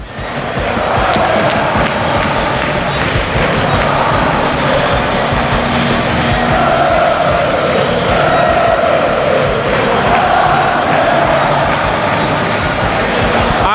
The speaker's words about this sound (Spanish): A ver si nos suben en Samames el sonido ambiente para ver cómo suena el estadio a esta hora después de la clasificación del Athletic Club.